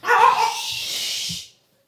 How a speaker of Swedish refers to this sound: Oh, då står en liten pojke utanför vår poddstudio och det är honom man skäller på.